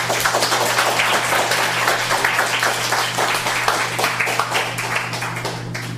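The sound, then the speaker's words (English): An audience at an evening poetry reading applauds steadily, dense overlapping claps at a fairly loud level for several seconds, with a low steady hum underneath. “Let's give yourselves and everybody else a hand.”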